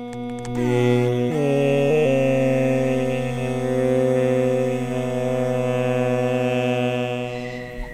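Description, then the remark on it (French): A mosquito buzzes in flight, a steady, rich whining drone that holds continuously for about eight seconds with slight wavering in pitch and no voices. “Donc au début, on va entendre simplement le moustique seul.”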